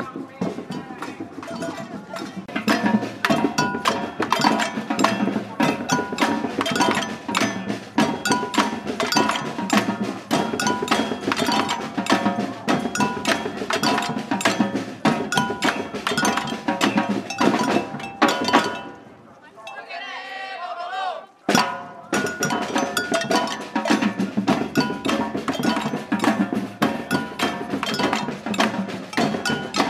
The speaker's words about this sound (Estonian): päris eh, pikk ja muljetavaldav rivi inimesi. ja trummarid kõik kenasti mängivad, osad neist on eh, metsloomadeks eh, maalitud.